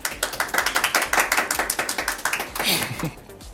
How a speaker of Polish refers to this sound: O, dobrze, mogą, no, proszę, brawa, tak.